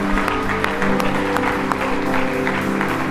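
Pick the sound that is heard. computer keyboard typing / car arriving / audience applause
audience applause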